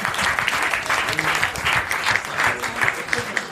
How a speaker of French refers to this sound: Très bien. Je peux vous applaudir aussi.